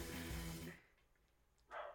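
A dog lets out a loud, rough growling bark, goes quiet for about a second, then barks sharply once more.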